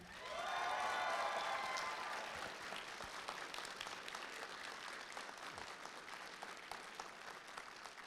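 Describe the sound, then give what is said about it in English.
Loud, sustained applause from a large audience in Dallas welcoming Joonas Suotamo to the stage, with a few cheers and whoops near the start before the clapping settles into a steady wash. “So let's hear it. Let's properly welcome to the stage the one, the only Mr.”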